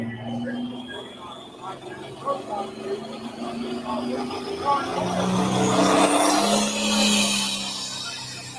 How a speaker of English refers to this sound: First tractor down the track.